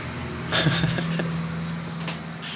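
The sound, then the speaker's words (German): A tractor engine drones with a steady, low, throbbing rumble, loud and continuous, with a few brief clanks and rattles over the hum. “ja, ich höre den Traktor.”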